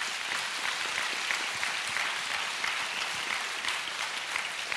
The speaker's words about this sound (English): We're so thankful for those that serve in the military, the armed forces, all the way across the world and here locally. One more time, if y'all don't mind, give them a round of applause.